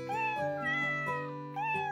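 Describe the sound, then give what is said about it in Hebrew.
Two cats walking along a fence meow several times in quick succession, with drawn-out, rising and falling cries, fairly loud and overlapping, with no talking. “על הגדר צועדים שני חתולים.”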